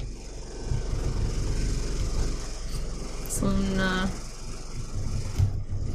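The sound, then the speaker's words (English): Loosely fitted windows rattle under the steady, deep rumble of an airplane passing overhead, which fills all six seconds, with a brief tonal hum midway and a few words spoken over it. “Happens when airplanes fly over sometimes.”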